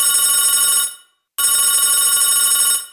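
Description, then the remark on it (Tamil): A phone line rings while an outgoing call to a friend connects: two loud, steady electronic rings separated by a short pause, with no voices. “அவன்கிட்ட கால் பண்ணி கேட்டா அவனுக்கு தெரியும்”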